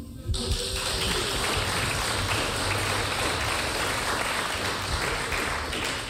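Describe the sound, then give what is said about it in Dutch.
An audience breaks into applause for Roy Kaikuzi after a brief quiet start, a dense, steady wash of many hands clapping at even loudness for several seconds, with no voices standing out. “Maar ik zou graag een applaus willen voor Roy Kaikuzi.”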